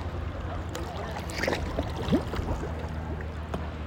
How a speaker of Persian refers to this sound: مثلا صدای کنار رودخونه بودن یا صدای کنار دریاچه بودن